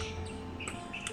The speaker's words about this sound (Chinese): 一直等到夜晚，才又听到杜鹃叫，由远叫到近，由近叫到远，一声即似一声，竟是凄绝的哀乐。